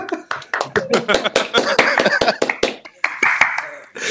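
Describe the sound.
Brisk, uneven clapping from a small audience as a speaker is invited onto the stage, the sharp claps coming in a quick irregular stream over voices talking and laughing.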